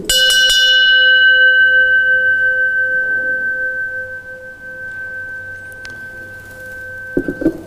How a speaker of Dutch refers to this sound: vind het altijd jammer om hem weer neer te zetten, want die nagalm is zo mooi bij zo'n klok.